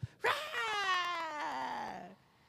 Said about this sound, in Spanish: Esas personas, ah, ¿dónde experimentan la comparación? cuando ven a la criatura salir y avientan el primer chillido.